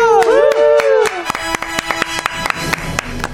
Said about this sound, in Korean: 네, 우리 스키지가 또 또 또 또 또 또 또 시상식에서 베스트 퍼포먼스상을 수상했습니다. 박수!